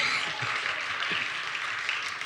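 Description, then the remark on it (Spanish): An audience applauding on Father's Day, a steady dense wash of many hands clapping at once, sustained at an even level throughout with no voices standing out. “No me creen, la madre no aplaudieron, aplaudan, ¿qué es lo que pasa?”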